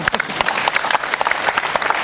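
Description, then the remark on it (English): A church audience claps together, a dense run of sharp overlapping hand claps forming a steady, lively patter of applause with no voices heard. “Clap thank for you.”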